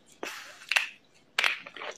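A screw-cap wine bottle is twisted open in two short bursts of crisp, crackling clicks as the seal breaks, with a brief pause between them and no voices.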